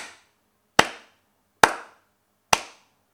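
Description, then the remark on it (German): Four sharp, evenly spaced hand claps, each a crisp crack with a short decaying tail, like slow applause from a single pair of hands, welcoming a host, with no talking. “Und hier begrüßen Sie bitte mit einem herzlichen Applaus Ihren Gastgeber”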